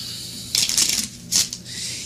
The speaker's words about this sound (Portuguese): vou deixar a carta no meio do baralho. E vou deixar realmente embaralhado.